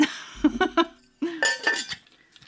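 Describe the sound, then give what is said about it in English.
Ice cubes tumble into a metal cocktail shaker in two quick bursts of sharp clinks and rattling, fairly loud, with a brief bright metallic ring after the impacts. “it's okay, because I was going to pour the ice in here anyway, so.”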